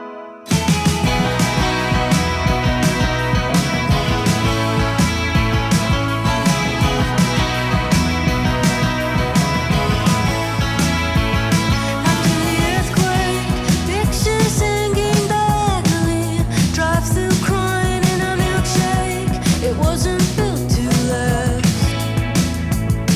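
A loud, steady power pop song plays throughout, with driving full-band rhythm and bright guitars, and a melodic line rising over the mix partway through; no one talks over it.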